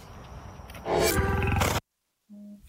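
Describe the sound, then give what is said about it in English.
A big cat lets out a loud, rough roar with a harsh, rumbling low growl beneath it, ending abruptly, followed by a short silence and a faint low hum. “It is a feline. Yes, it would be qualified as a feline.”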